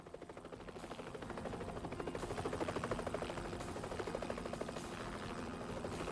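A helicopter equipped with a heat-sensitive infrared system, provided by the Atomic Energy Commission in South Carolina, chops in a fast, steady thumping beat over a deep engine drone, swelling louder during the first couple of seconds and then holding strong overhead.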